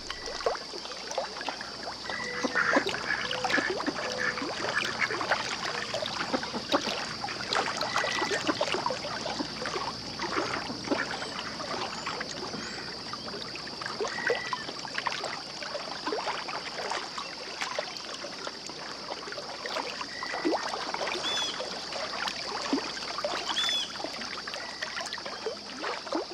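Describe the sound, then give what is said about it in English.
Tidal water of the Hudson River flows and laps steadily at a marsh, a continuous trickling and gurgling texture with a constant high buzz underneath throughout; no voices. Recorded by an artist for her CD. “She recorded the ebbs and flows for a CD she calls ….”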